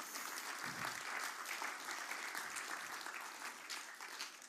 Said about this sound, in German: Applaus mal für die, wo da damals dabei war.